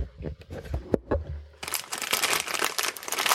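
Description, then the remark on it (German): Plastic packaging of an A1 chicken-flavoured instant noodle soup packet crinkles, starting with scattered sharp crackles and then swelling into a dense, continuous rustling and crunching as the packet is handled and opened. “So, ich mache jetzt die Tüte auf. Das ist eine äh, A1 Instant Noodles Miga Suppe mit Huhngeschmack.”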